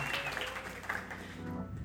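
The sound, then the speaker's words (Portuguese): A crowd claps together in a steady, dense wash of applause for a religious message, the word of God, filling the space for a couple of seconds with a faint voice underneath. “Vamos aplaudir essa palavra linda de Deus. Vamos aplaudir, vamos aplaudir.”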